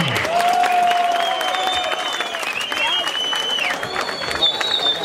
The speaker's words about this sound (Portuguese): Palmas pra batalha! Ai, não me convenceu essas palmas não, palmas na cara, pô.